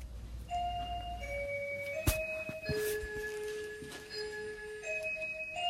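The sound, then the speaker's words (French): A doorbell chime at the front door of a home plays a short melodic sequence of sustained electronic tones, stepping between pitches and ringing out clearly, with a few sharp clicks along the way. No one speaks. “Eh bien, je suis euh, devant la porte de chez moi. Est-ce que vous pouvez sonner pour moi Oui, je vais sonner pour vous.”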